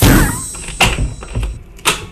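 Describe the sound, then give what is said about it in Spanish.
A door is handled and opened, with a loud rattling start followed by several sharp knocks and thuds spaced out over about two seconds, with no talking. “¿Para qué abre la puerta si se...”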